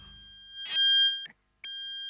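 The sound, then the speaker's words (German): Two steady electronic beeps, like interference on a mobile phone call: a longer tone, a brief gap, then a slightly shorter one, clear with no talking. “Das klingt furchtbar. Was piepst da so? Was ist das?”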